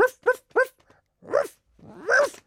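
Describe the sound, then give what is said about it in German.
A voice imitates a dog barking: three quick, short barks in a row, then two longer, drawn-out howling barks, clear with no other sounds around. “Auf einmal hörte ich von weiter weg einen Hund bellen.”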